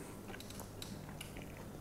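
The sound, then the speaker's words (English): Quiet chewing of steak by people, with soft irregular clicks and moist smacking sounds over a low background hum, and no talking. “Now, if you're the kind of person listening who doesn't like chewing sounds, I apologize in advance because the rest of this podcast it's gonna be us chewing.”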